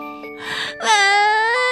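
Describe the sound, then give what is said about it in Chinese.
A three-year-old girl, startled by a loud sneeze, breaks into a loud, wailing cry. A short breathy sob comes first, then a sustained, high-pitched bawl that holds strong and steady to the end. “小妹妹吓了一大跳，哇哇大哭起来。”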